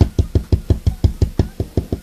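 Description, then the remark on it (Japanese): A rapid, steady run of about a dozen taps, like fingernails rapping on a smartphone case, each one a dull knock with a light clicky edge, with no talking over it. “こんなんが、こんなんが4つぐらいの席のおいちゃんが爪の音でスマホのケースを叩くような、あの、聞こえますかねこんなんのもっと、もっと、もっといい感じで爪が硬くて”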